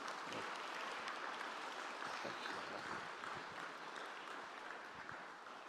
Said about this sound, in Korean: 우리 목사님 나오실 때 한번 큰 박수로 한번 환영하겠습니다.